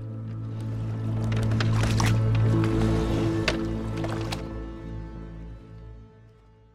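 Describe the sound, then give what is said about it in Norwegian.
Water laps and sloshes against a small wooden rowboat out on the water in irregular splashes over a steady low hum, the splashing settling and fading toward the end. “Og folk begynte etter hvert å lure på hva som egentlig foregikk der ute på vannet, blant måkeskrik og bølgeskvulp.”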